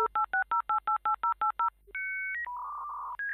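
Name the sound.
telephone dialing tones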